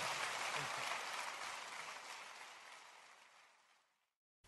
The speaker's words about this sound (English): Hey, let's give a round of applause to Randy Alcorn for coming today.